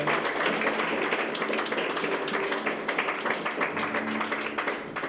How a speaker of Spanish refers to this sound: Puedes dar un fuerte aplauso a aquel que puede hacerlo.